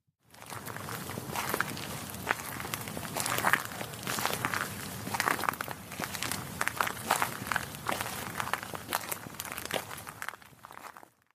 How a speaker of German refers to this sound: Ja, wir hören Waldgeräusche